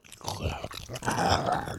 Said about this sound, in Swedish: Stänk av blod och inälvor täckte klädkammarens väggar till ljudet av det högljudda smaskandet blandat med bestens något intima njutningsyttringar.